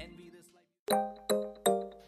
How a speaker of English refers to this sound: Ooh. notification. it's some more instant gratification.